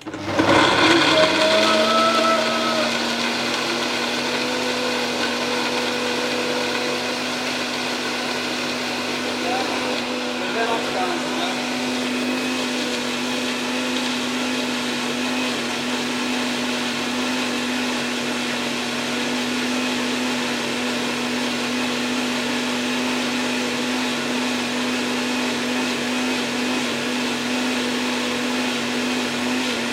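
A kitchen blender, used for cooking, starts up with a brief surge, then runs at a steady, loud, high-pitched whine for the whole stretch, its motor drone constant.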